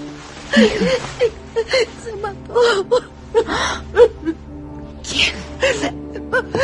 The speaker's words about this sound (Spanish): abraza a su madre y estalla en llanto.